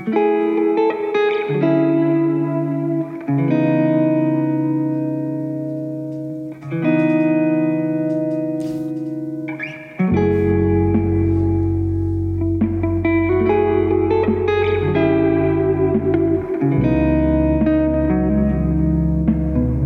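A song plays with sustained, effects-washed chords held in long blocks and no singing; about halfway a deep bass layer swells in, thickening the sound while the chords keep shifting steadily.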